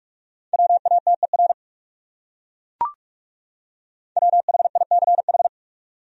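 Rapid Morse code at about 45 words per minute, sending the top 100 words: a steady mid-pitched tone keyed in quick dots and dashes, two short bursts with a single soft click and silence between them.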